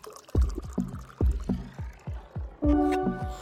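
Water pours into a glass in a series of gurgling glugs, with a rising ringing tone toward the end as the glass fills.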